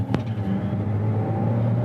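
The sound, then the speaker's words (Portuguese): The four-cylinder engine of a plug-in hybrid car idles with a steady, deep rumble, low and even throughout, with a brief sharp click near the start and no talking. “Muito boa mesmo o, o ronco dele não achei feio, não. Não. Por ser um 4 cilindros, óbvio.”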